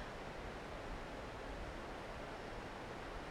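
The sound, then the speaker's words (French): Steady, continuous rush of the Sorgue river flowing at Fontaine de Vaucluse, a dense even hiss with a low rumble underneath, unbroken throughout, with no voices. “suis au bord de la Sorgue.”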